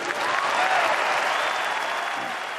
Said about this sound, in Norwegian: Ja, applaus til den eh, siste replikken om at eh, uten et lederskifte blir ikke de neste fire år noe bedre. Og det var altså visepresident Paul Ryan, visepresidentkandidat riktignok.